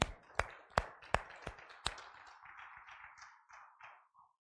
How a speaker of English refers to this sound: Let's give him a good hand clap tonight, all right?